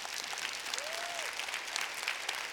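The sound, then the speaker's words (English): A church audience cheers for the Lord and claps steadily, a dense wash of applause with a single rising-and-falling whoop standing out briefly in the middle. “Can anyone cheer for the Lord if that's been you?”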